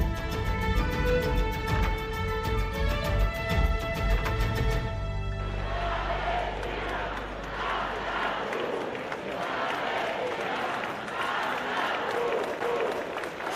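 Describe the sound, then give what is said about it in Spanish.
Thousands of people roar and shout at a street demonstration in Donostia against Israeli attacks on the Gaza Strip and in solidarity with the Palestinian people, a loud, continuous wash of many voices with rhythmic clapping or chanting at the start, then a dense, steady clamor. “Son los gritos de las miles de personas que se han sumado esta tarde en Donostia a la manifestación contra los ataques israelíes en la franja de Gaza y en solidaridad con el pueblo palestino.”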